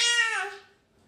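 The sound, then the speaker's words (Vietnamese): A young child lets out a single loud, drawn-out babbling vocalization, high-pitched and tonal, fading away after about half a second. “con không được nói to như thế nhá nói từ tốn thôi nhá”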